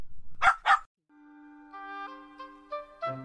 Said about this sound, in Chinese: 哎，他们突然发现，在卡车的窗户里有一双耳朵，一抖一抖，是谁呢？他们凑近一看，原来是小狗。小狗捉到你啦！